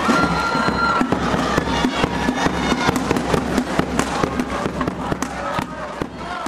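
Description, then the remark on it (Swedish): A large crowd of about 2,000 students roars in a packed arena, frenetically cheering for their schools from the stands, a loud unbroken din of cheering with sharp claps and bangs cutting through it throughout. “Ja, det är ett oerhört oväsen när man sitter på läktaren och lyssnar på de i runda slängar 2000 elever som är där och frenetiskt hejar på sina skolor.”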